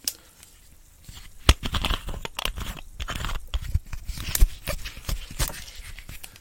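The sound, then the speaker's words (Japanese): A drink is poured into a glass, with crisp crackling and clicking like fizz or ice shifting, scattered irregular snaps over a soft continuous pour, and no voices. “注ぎました。”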